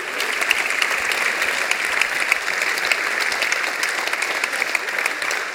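An audience gives warm, steady, sustained applause to welcome a mother being introduced, dense with many overlapping claps at an even loudness for several seconds, with no talking over it.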